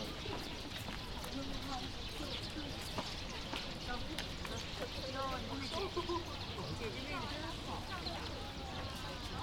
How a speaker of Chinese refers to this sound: 这是鸽子。 啊，鸽子。 往这边，宝宝，这边来。 有，你看鸽子吃小米呢。